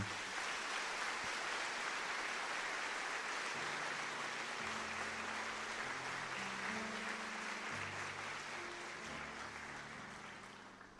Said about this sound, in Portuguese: Eu gostaria que você aplaudisse Santa Terezinha.